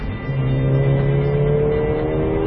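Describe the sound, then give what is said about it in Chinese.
A small-displacement Mercedes-AMG A45 engine (381 hp, 475 Nm, seven-speed dual-clutch) in S+ mode revs hard under acceleration, a loud, sustained growl with steady harmonic tones holding a fairly even pitch, no voices over it. “哇，这声音哦哦！虽然它排量小，但是它已经让我体会到了很长时间难得的那种稍微有一点点紧张，或者说刺激，或者说肾上腺素那种担忧的感觉。”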